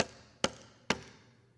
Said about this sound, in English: See, to knock is also not a one time thing. A knock involves at least three knocks.